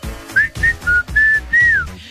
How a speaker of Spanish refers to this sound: Mira, en Puerto Rico, pito, o sea, un pito, un silbato.